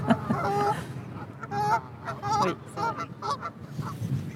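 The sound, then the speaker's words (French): Ducks quack repeatedly in a loose, overlapping chorus of harsh, nasal calls, steady throughout, with no one speaking over them, by the water in Paris. “surtout des canards.”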